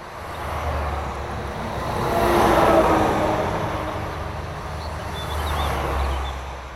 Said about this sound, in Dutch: En nu is het weliswaar een doordeweekse dag, maar op zaterdag is het hier eigenlijk dezelfde verkeersintensiteit als dat je nu hebt.